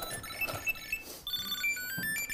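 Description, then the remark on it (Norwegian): A Tile Bluetooth tracker inside a backpack plays a bright, high-pitched electronic ringing melody, a quick series of chirpy tonal notes repeating steadily and fairly loud, with no one speaking. “Og der, der låter det ganske høyt her nå. Ja, den var jo oppi sekken, vet du.”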